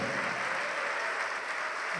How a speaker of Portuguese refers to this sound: Ô oh, glória, vamos aplaudir, igreja. Vamos nos alegrar, igreja.